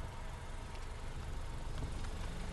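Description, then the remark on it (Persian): A taxi engine starts and the car comes closer, its engine rumbling steadily at a low pitch at an even, moderate loudness throughout, with no voices present. “از پشت سرش صدای روشن شدن موتور تاکسی رو شنید و همینطور که میدوید صدای ماشین هم نزدیکتر میشد”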